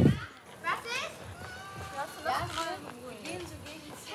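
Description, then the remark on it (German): Children's voices chatter and call out in the background, a lively jumble of playing kids with occasional higher shouts, faint and steady throughout, with no adult speech in the foreground. “Vielleicht hört ihr im Hintergrund ein paar Kinder spielen oder ein paar Grillen zirpen.”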